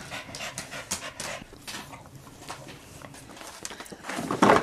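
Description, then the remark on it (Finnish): A dog named Frida pants in quick, rhythmic breaths with wet licking and slurping sounds as she comes to lick, growing louder toward the end. No one speaks. “Aha, Frida tuli nuolema.”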